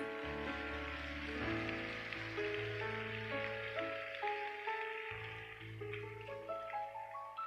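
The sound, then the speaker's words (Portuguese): Steady, dense clapping like a crowd applauding, given as applause to the Lord, a continuous crackling wash that runs the whole time under sustained, slowly changing keyboard chords. “Se você quer, dar uma salva de palmas ao Senhor.”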